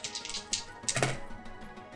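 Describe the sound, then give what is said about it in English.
Small dice clatter across a hard tabletop in a quick burst of sharp clicks, with one louder rattle near the middle before they settle. No one speaks. “I'm actually going to use smaller dice for this.”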